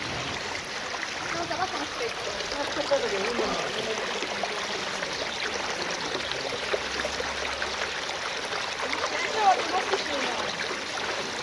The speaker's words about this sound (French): Ici, une rivière très claire sort d'une gorge étroite et débouche de la montagne. C'est la rivière Alcantara.